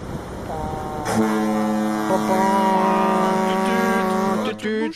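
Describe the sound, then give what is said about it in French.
Several deep foghorns, all the foghorns of the port of Brest, France, blare together in a loud, sustained chord of overlapping tones, holding steady for several seconds before cutting off, with a faint rumble of the harbour underneath. “on n'a pas un bateau là, on a toutes les cornes de brume en même temps, c'est Brest quoi.”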